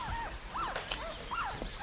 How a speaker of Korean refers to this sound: 강아지 울음소리인데?